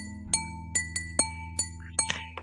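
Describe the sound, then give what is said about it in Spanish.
Two drinking glasses clink together several times in a steady rhythm, each bright ringing ting clear, with a faint low hum underneath and no talking. “Tengo dos vasos. Sí, eh, se escucha bonito el ting.”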